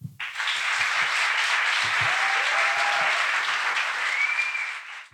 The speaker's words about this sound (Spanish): Pero no quiero eh, alargarme más porque lo que vamos a hacer es empezar a disfrutar y recibir el primer aplauso